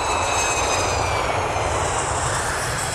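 Jet engines of a Tu-154 airliner, which has three engines all mounted in the tail, running at steady power: a loud, continuous roar with a thin high whine layered on top, unbroken for the whole stretch, with no voices.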